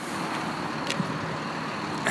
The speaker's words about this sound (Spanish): Y hasta aquí terminamos este punto porque si no se escucha todo el ruido de los camiones.